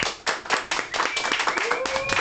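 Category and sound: crowd, applause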